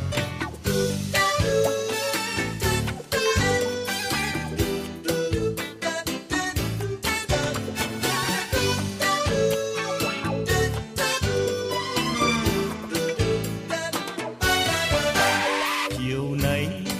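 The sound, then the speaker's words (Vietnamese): A pop song sung in Vietnamese opens with a full, steady band arrangement and a female vocal line, playing loud and continuous throughout, with no talking over it. “Tiếp nối chương trình hãy cùng chúng tôi đến với giai điệu âm nhạc tiếp theo mà chúng tôi lựa chọn gửi tặng đến quý vị”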